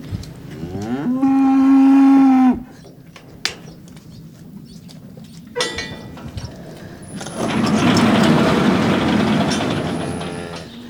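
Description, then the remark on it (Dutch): A loud cow moo holds for about a second and a half, followed by quieter shuffling and clanks, then a broad, noisy rumble of barn activity with more animal sounds, as dairy cows, including Friesian Holsteins, wait to be let outside at the hoogwaterboerderij (high-water farm). “Je ziet hier, de koeien zijn allemaal te wachten nu eh, om naar buiten te mogen.”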